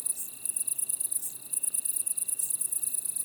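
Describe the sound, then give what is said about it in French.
A chorus of great green bush-crickets, splendid bush-crickets, Italian tree crickets and wood crickets, with high, rapid pulsing chirps layered over a steady buzzing trill, continuous, with no voices. “Grande sauterelle verte, grillon italien, decticelle splendide, grillon des bois.”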